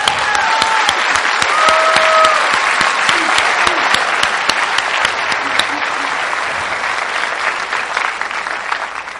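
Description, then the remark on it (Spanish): A conference audience claps and applauds itself steadily for several seconds, a dense wash of many hands with scattered whistles, holding loud before easing slightly toward the end. “Dense un aplauso a ustedes mismos, por favor.”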